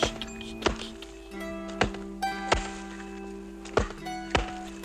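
Axes chop wood in a series of sharp, hollow thunks, about six or seven blows at an uneven pace, over a steady low humming tone in the background.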